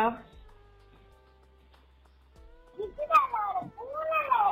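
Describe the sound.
A child playing a cat game mimics a cat, giving a few high, drawn-out, wavering meows after a brief quiet stretch, the calls growing louder toward the end.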